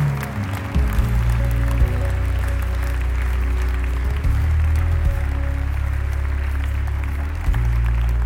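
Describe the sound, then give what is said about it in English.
An audience claps steadily for the full stretch, a dense, even patter of many hands over low, sustained musical tones, with no pause in the clapping. “Oh, I wish you would keep clapping.”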